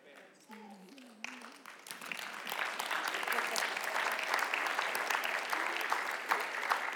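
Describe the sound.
An audience at a sermon breaks into applause when the preacher pauses, many hands clapping in a dense, steady patter that swells and holds loud, with a voice briefly audible at the start before the clapping takes over.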